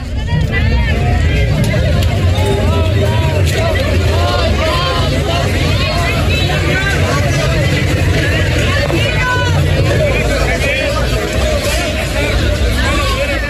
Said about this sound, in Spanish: esto que escuchamos de fondo es parte del relajo que se armó desde la noche del viernes en las puertas del Estadio Azteca y las inmediaciones, porque se han acumulado denuncias por boletos piratas, clonados e incluso por reventa excesiva